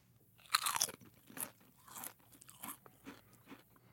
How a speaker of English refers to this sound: I have two different potato chips in front of me right now chip A and chip B. okay. And I want you to tell me, based solely on the sound of the crunch, which chip is fresher, crisper, better. Okay. Okay? I'm ready. Here comes chip A.